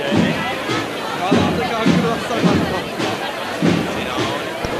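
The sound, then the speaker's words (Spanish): The drums of a cornet and drum band thump out a steady, regular beat at night on Calle Pureza in Triana, half-buried under the dense murmur of a large street crowd with voices talking throughout. “Ahí se escuchaban de fondo los tambores de la banda de cornetas y tambores de las tres caídas.”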